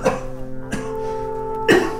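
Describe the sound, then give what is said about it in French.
Three separate coughs, each a short harsh burst spaced irregularly over two seconds, the last slightly louder, over a steady low humming drone with no talking. “avec ta toux là”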